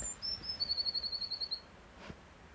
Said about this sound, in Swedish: Nej, det är, blå, det är blåmes.